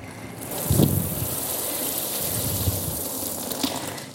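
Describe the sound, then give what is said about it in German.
A steady stream of water pours from a watering can and splashes for several seconds, a continuous gushing sound with a slightly stronger burst near the start, no voices. “Und dann hat er uns ein Bild gegeben von einem Regen, der wie diese Gießkanne hier”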